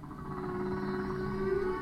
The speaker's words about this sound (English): The Odyssey also collects recordings of whales singing, continuing the work that Roger Payne, president of Ocean Alliance, started more than 40 years ago. And Dr. Payne says he's noticed that over the years, the whales have changed their tunes.